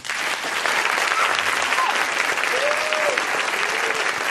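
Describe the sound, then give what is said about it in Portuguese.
Sustained applause from an audience welcoming the neuroscientist Paulo Matos onto a program, a dense steady clatter of many hands clapping at even loudness for several seconds, with a few faint whistles rising over it. “Então, agora, o neurocientista Paulo Matos, podem aplaudir.”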